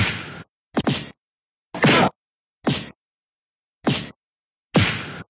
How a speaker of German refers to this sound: Die Soundeffekte auch alles sehr wie dieser John Wayne Schlagsound.